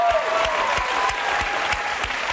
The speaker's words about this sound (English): Why is the mob cheering for sweaters now?